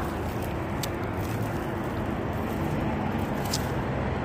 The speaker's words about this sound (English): All right, and uh, this uh, this whole buildup of traffic, this heavy, heavy traffic that's remaining on Holt Boulevard